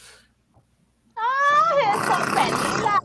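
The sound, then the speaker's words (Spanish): A tiger roars once, loud, rising from a tonal cry into a rough, rasping growl that holds for about two seconds before cutting off, with no talking around it. “Tagasi Chani se siente como hipnotizada por el terror que le causa el tigre”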